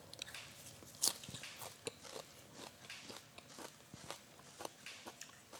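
A crisp bite into salted, drained napa cabbage as someone tastes it to check its salt content, with one loud crunch followed by a steady series of wet, crunchy chewing sounds. No one speaks.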